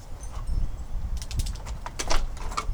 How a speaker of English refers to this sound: Can you close that door, please, please? I love you guys. Please, please close the door.